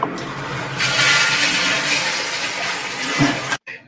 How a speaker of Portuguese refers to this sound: Os alunos aqui gravaram um som de uma descarga do banheiro